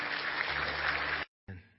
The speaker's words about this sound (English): Give God a good hand clap of praise just for a moment.